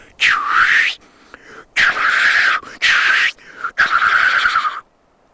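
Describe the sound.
A person imitates a black grouse's challenge call to draw a black grouse in to fight, making four loud, breathy hissing bursts, each lasting about a second with short pauses between them.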